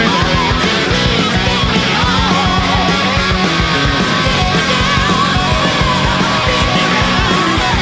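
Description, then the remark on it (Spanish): A loud, dense rock track plays with pounding drums and distorted guitars, and shouted backing vocals, sung by the lead singer himself, rise over the steady, driving beat from start to finish. “ahí me parece que él mismo está haciéndose los coros, ¿no? Está como gritando, hay unos arreglos, unos trabajos acá impresionantes.”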